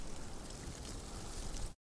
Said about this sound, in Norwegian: Raslingen i trærne.